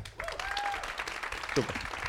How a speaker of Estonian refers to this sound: aplaus